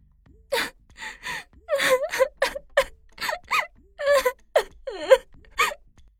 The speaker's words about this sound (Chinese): 终于大声的哭了起来。